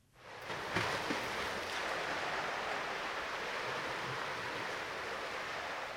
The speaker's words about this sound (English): And I'm standing in his garden, even though it sounds like like I'm in the sea.